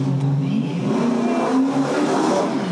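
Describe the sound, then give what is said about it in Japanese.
A motorcycle engine hums steadily outside, heard through an open window, its pitch rising and falling slightly as it passes by, heard continuously throughout. “バイクが通ってます、ね、今ね。”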